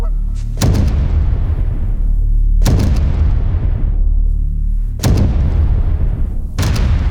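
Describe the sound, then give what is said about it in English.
Four loud blasts from a Benelli Super Black Eagle 3 shotgun at uneven intervals, each a sharp crack followed by a deep, rumbling boom that fades slowly. No voices. “When the entire experience relies on the moment that trigger is pulled, your shotgun better be nothing less than perfect.”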